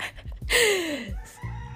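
A rooster crows once, a loud, strained call that slides downward in pitch over about half a second, with faint background noise before and after and no talking.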